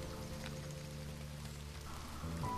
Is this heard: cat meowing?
no